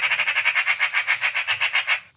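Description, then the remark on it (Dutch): A magpie's harsh, rattling chatter: a steady run of about a dozen rapid, scratchy bursts over two seconds, loud, with no one talking. “Ze maken heel veel herrie. Ze maken wel een geluid, toch?”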